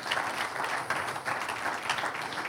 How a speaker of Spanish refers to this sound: Un aplauso al que vive, aleluya.